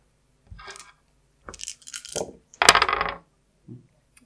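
Dice clatter on a hard surface in a few separate bursts, first a short rattle, then a couple of tumbling rolls and a louder final clatter, with no talking.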